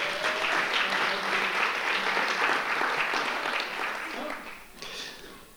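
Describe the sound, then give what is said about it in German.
A crowd claps steadily for several seconds in applause for the volunteers, a dense wash of many hands at an even level that thins slightly toward the end, with faint voices mixed in. “Herzlichen Dank an die Freiwilligen. Gebt ihnen einen Applaus”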